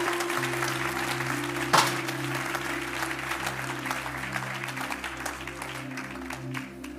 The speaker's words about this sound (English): Come on, if you want to give Jesus a clap, make sure it's a good one.